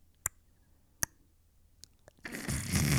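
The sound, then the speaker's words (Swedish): A voice imitates creepy throat clicking: a few sharp, widely spaced clicks, followed by a louder raspy, gurgling rush of breath at the end. “Alltså sån här liksom, när de liksom gör något knäppande med halsen så här, klack, klack, klack, klack, klack.”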